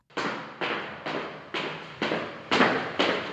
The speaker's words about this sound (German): Dann stieg jemand die Treppe hinunter.